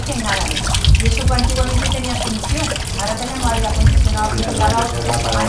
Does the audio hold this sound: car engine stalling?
no